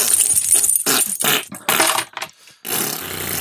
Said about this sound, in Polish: Dobra, wszyscy wydajemy wszystkie paszczowe dźwięki, jakie nam zostały w paszczy.